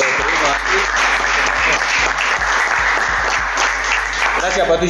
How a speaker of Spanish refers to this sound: Y bueno, se dio todo esto, así que, bueno, un fuerte aplauso para